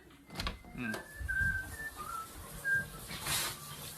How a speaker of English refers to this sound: That's the song I used to whistle during basic. Remember that?